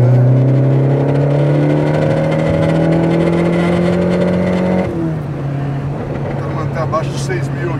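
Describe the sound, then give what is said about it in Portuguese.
A car engine screams at high revs against the electronic rev limiter, set up to beep for the shift and then cut, holding a loud, steady buzzing drone for several seconds before dropping abruptly; voices are briefly audible afterward. “Ele tem o um corte eletrônico.”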